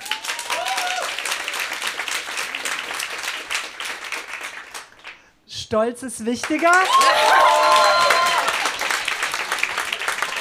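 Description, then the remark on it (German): An audience applauds to vote for accepting help during an interactive choose-your-path story reading. Steady, dense applause fills the first half, briefly broken by a few spoken words, then loud clapping resumes mixed with cheering voices and whistles. “Also Hilfe annehmen, bitte Applaus jetzt.”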